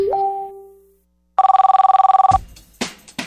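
A brief electronic tone fades out, then a telephone rings once with a fast, trilling burst for about a second, followed by a couple of sharp clunks, as if the receiver is picked up.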